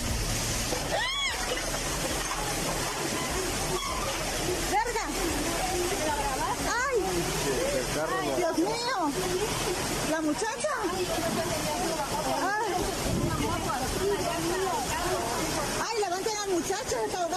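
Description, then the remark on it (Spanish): Heavy rain pours steadily on a street during a storm by the Suchiate in Chiapas, filmed by a woman; a dense, loud hiss that never lets up, with people's voices talking over the downpour throughout. “En, allá por el Suchiate, una tormenta está cayendo y una señora filma la calle, la lluvia, ah.”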